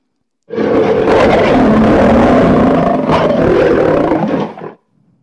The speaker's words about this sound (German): Mir würde gerne jetzt mal ein lautes Löwegebrüll einblenden.